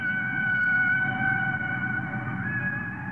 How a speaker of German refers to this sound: bis 1970 der Wissenschaftler … die Schallplatte … veröffentlichte. Die Aufnahmen zeigten Wale als intelligente Meeresbewohner, die wie Menschen über Töne miteinander kommunizierten.